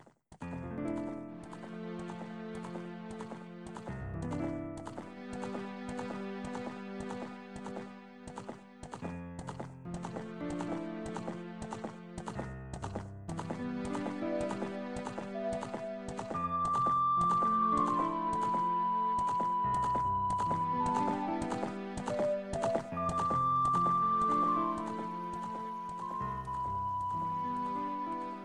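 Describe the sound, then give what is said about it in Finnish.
Video game horse hooves clip-clop in a steady galloping rhythm under a bright synthesized melody, loud throughout, with no one talking. “kyseessähän on siis kaikkien aikojen paras videopeli, eli Ocarina of Time”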